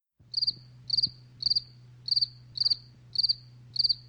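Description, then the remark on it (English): Crickets chirp in a steady, even rhythm, seven short trilled bursts about half a second apart, clear over a faint low hum, with no voices. “And yet, all we have heard in the intervening 365 days is crickets.”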